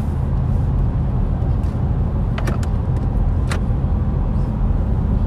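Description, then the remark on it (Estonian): Steady, heavy low rumble of a car driving over an uneven road, with a few sharp clunks and rattles from the cabin partway through. No one speaks. “ilmselgelt ta ei ole sportauto, aga praegu nagu kui niisugust teed sõita, siis noh, ütleme poliitiliselt korrektne olla, siis on kindlasti palju mugavamaid autosid olemas”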